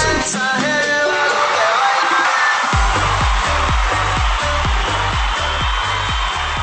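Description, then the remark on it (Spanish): Loud, dense applause with cheering and high whoops from a crowd, joined halfway through by a steady, thumping low beat that pulses under the continuing clapping. “Gracias, gracias, gracias por todos los aplausos.”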